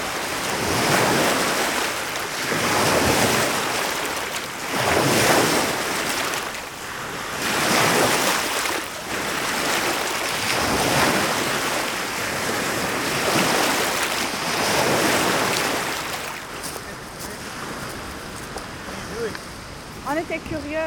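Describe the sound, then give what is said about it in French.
Evening ocean waves wash in steadily, each broad hissing swell rising and falling every couple of seconds, with some wind rumble, easing into a softer wash near the end. “Les vagues du de soir ont une texture particulièrement veloutée.”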